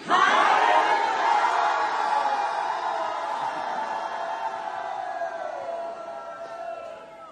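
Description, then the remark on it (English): A large crowd of people attending a Bible school shouts "hallelujah" together in one loud, sustained unison cry that swells at the start and slowly fades over several seconds, with no other talking. “And uh, they're going to send you a, a, little hallelujah back to you guys.”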